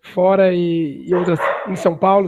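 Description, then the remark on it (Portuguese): A dog barks in the background, a few sharp barks cutting in while a man talks steadily in Portuguese in the foreground, the barking quieter but clearly audible. “desculpa que o latido.”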